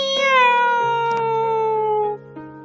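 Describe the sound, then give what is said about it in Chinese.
A cat named Sotte (索特) gives one loud, long drawn-out meow lasting about two seconds, its pitch sliding slowly downward before cutting off, with no voices around it. “索特大声的叫着，希望能够引起巴克的注意。”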